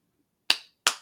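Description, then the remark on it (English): Two sharp hand claps, about a third of a second apart, each a bright crisp burst that fades quickly, with near silence before and between them. “I just started clapping.”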